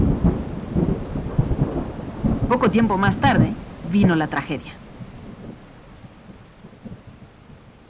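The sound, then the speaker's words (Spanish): A thunderstorm with deep rolling thunder and steady rain hiss: the unprecedented storm that began in Mexico City on 21 September 1629 and lasted two whole days. A man speaks briefly over it, and the rain continues softly after his voice stops. “El 21 de septiembre de 1629 inició una tormenta sin precedentes duró dos días enteros.”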